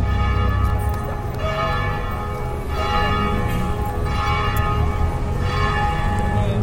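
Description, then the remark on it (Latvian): The bells of the Catholic church of Saint Francis in Aleppo, Syria, ring steadily and loudly, their overlapping tones forming a rich, sustained peal with repeated strikes swelling every second or so, no voices present. “Šie, ko dzirdat, ir Svētā Franciska vārdā nosauktās Katoļu baznīcas zvanis Sīrijas pilsētā Alepo.”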